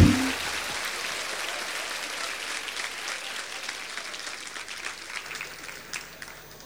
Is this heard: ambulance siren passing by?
no